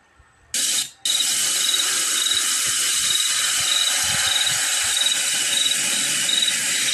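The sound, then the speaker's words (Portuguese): An indigenous handheld musical instrument imitating nature sounds: a steady, loud rain-like hiss begins after a brief burst, with faint regular high chirps like crickets repeating throughout. No one speaks. “Chuva, trovoada, grilo, coruja, passarinho são esses sons que normalmente os indígenas é, imitam.”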